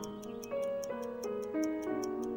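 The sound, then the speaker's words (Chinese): A pocket watch held in a hand ticks in a quick, steady rhythm, about ten crisp clicks, over sustained musical tones that shift pitch every fraction of a second. No one speaks. “请看着我的手势，听着我的声音，你的眼睛跟随着我手里的怀表，”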